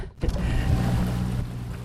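A motorboat cruises on the sea past Piran toward a first observation point on a sunny morning: a loud, steady engine drone with low humming tones and a broad rush of water and wind, continuous after a brief quieter start.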